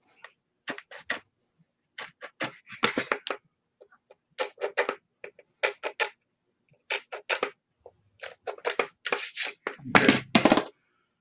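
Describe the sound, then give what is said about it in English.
Short, rasping scrapes of a small deburring tool run over the edge of a freshly drilled hole to remove burrs, in irregular bursts of quick strokes, growing louder and harsher toward the end. “Um, you can use a knife uh, or something to uh, deburr them, at least some burrs. Um, so just in case, I have this little tool here I'll use just to run it over it.”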